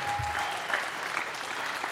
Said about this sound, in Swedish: Fantastiskt, grym en stor applåd. Tack så mycket.